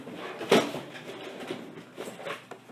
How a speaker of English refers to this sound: Now he's rummaging through his drawers.